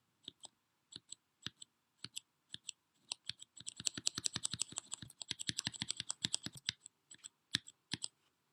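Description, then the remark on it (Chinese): Typing on a red-switch mechanical keyboard, a linear switch with no tactile bump and a light keystroke force: slow, evenly spaced keystrokes give way to a fast, dense burst of clacking, then a few scattered taps. Crisp, bright clicks with no voices. “如果你喜欢这种直上直下的感觉，红轴也是一个不错的选择。”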